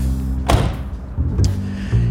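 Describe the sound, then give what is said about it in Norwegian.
A car door slams shut with a heavy thud, followed by a lighter knock a moment later, all over a low, steady idling engine rumble. “Skjødesløse viser jeg folk døra. Her skal du av.”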